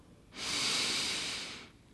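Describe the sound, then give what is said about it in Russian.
A single long, deep inhale during a guided relaxation breathing exercise, a soft airy rush that swells quickly, holds steady for over a second, then tapers off, with no talking. “Вдох”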